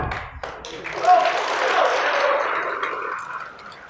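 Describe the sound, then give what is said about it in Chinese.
An audience bursts into applause during a storytelling performance of Wu Song Fights the Tiger, a dense, steady wash of many hands clapping that swells quickly and holds at full strength for several seconds before starting to thin out. “刚才同志们这个掌鼓的太结实了。”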